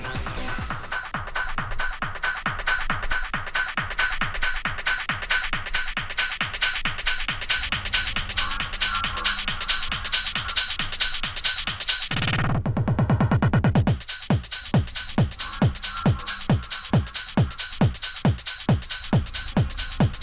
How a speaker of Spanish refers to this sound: Pues hacía mucho tiempo que no lo escuchaba, pero te voy a contar la historia de este tema, que suena así de bien.